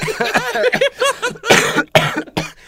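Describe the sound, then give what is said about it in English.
A person coughs several times, harsh bursts following some strained voiced sounds, loud and fairly rapid. “I've been suppressing a cough.”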